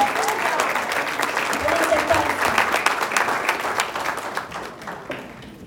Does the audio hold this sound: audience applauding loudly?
yes